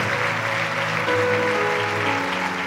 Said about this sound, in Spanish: Démosle un fuerte aplauso al Rey de Reyes y Señor de Señores. Déselo más fuerte, déselo más fuerte. Amén. Déselo más fuerte. Más fuerte, más fuerte.